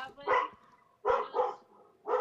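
Dogs bark in four sharp, loud bursts at an uneven pace, two coming close together, with short quiet gaps between them.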